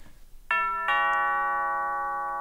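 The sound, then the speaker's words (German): A doorbell chimes a clear two-tone ding-dong, loud, the second note ringing out and slowly fading with no one speaking. “Wie mache ich denn den Sound, eine Tür zu öffnen? Kann Ding Dong.”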